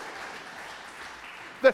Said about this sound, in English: They're, they're clapping because now the sermon can go longer.